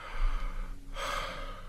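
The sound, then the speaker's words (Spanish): A slow, deep inhale drawn in through the nose, fairly loud, with a breathy hiss swelling over about a second after a brief pause. No one speaks. “Jalando el aire, flojito del cuello, sueltito.”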